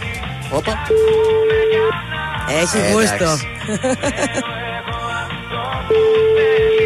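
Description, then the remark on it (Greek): Steady electronic telephone tones sound twice as the radio station Transistor 100.3 places a birthday call on air, each a flat beep lasting about a second, with busy music and a brief spoken phrase in between. “Μια αλλά στιγμή, έχουμε τηλέφωνο για ναι, γενέθλια.”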